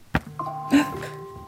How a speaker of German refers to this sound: Das ist mein Wecker.